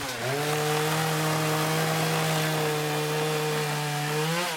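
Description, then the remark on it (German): A steady, droning engine whine like a chainsaw or power tool runs continuously, holding one pitch before rising briefly at the end, with no voices. It is construction noise from an old barn being demolished behind the Hotel Tuchhaus, in the middle of town. “Aus einem Nebengebäude kommt Baulärm.”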